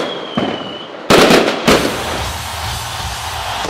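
Fireworks burst in quick succession: a faint pop, then two loud, sharp bangs about half a second apart, followed by a long crackling, hissing wash that lingers as the explosions fade.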